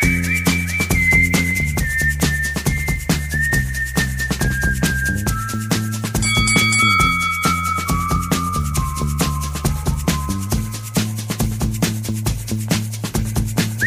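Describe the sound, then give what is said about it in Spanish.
A bright whistled melody glides through a catchy tune, note by note, over a full band backing with bass and a steady beat; nobody speaks. “Chiflele, chiflele.”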